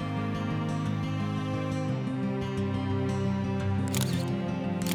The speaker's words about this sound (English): She hears the cameras click, a quick succession of sounds as not one piece of evidence is left behind.